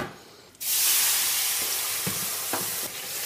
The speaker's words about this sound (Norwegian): Sånn. Smøret begynner å bli brunt.